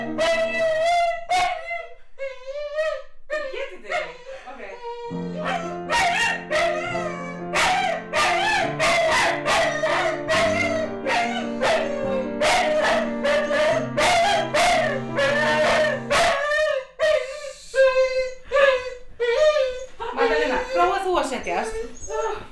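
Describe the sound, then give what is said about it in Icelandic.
A dog sitting in a person's lap on a sofa howls and yips along with music being played, its wavering high cries rising and falling over sustained instrumental chords, with a few sharp yelps near the start and end. “Hún situr í fangidóttu minnar í sófanum en samt gerist þetta.”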